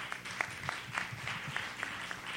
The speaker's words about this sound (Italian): Quindi secondo me vi meritate un vostro applauso. Io ve lo faccio da qui.